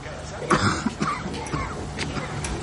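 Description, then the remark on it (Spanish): An elderly man lying in bed in a bedroom, watching television, coughs several times in a row, raspy, with short harsh bursts and some throat clearing spread across a few seconds. “El hombre tose en el dormitorio y ella se acerca lentamente.”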